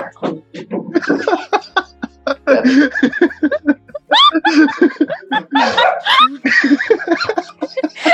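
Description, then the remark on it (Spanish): A rapid string of sharp, high-pitched yelps from dogs, loud, with rising squeals bunched together over several seconds and barely a pause between cries. “¿están matando los perros?”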